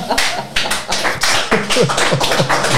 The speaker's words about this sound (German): Das war die Zorokenshi Show. Bitte Applaus jetzt nochmal hier.